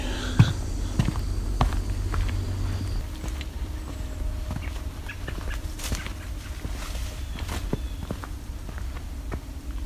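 Several American robins, mostly young, call with sharp, scattered chips and short squeaky notes over a steady low rumble and occasional soft shuffling.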